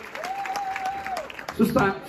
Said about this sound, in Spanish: Cuando damos un aplauso a nuestro guitarrista, nuestro pianista, los amamos, qué honor tenerlos en casa nuevamente